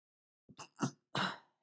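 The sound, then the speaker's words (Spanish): A person sneezes: a few short, catchy breaths build up, then one loud, explosive, hissy burst finishes it off, with no talking. “ahí voy a estornudar”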